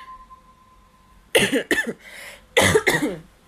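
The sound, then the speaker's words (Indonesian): Two clusters of harsh coughing, each a quick double burst, separated by a short pause after a quiet start with a faint steady hum. “aduh batuk sorry banget guys”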